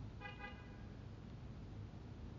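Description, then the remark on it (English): A car horn gives two quick honks right at the start, then falls silent while a low, steady rumble of engine or road noise continues underneath. No one speaks. “Just like that, God blew the horn.”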